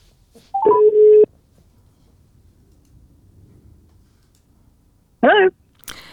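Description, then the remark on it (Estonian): A telephone call from Tallinn to Sydney, Australia, dialing and connecting: a short burst of tones, a quiet line hiss for several seconds, then a warbling electronic tone and a brief click as the call goes through. “aga nüüd läheme väga kaugele ja püüame saada ühendust Austraaliaga”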